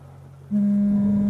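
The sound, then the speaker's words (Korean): A telephone rings with a loud, steady electronic tone that starts abruptly after a short quiet moment and holds without a break. No one speaks. “그 순간 전화기가 울려왔다.”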